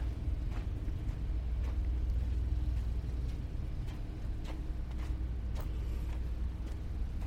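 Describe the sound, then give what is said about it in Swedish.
A flashy car starts up right beside the speaker, its engine rumbling steadily and loudly for several seconds, a dense low drone with occasional sharp clicks and knocks on top, and no voices. “Som startar här bredvid mig.”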